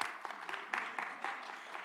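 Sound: audience clapping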